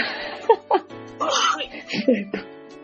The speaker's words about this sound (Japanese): あ、ちょっと待ってください。くしゃみが出そうっす。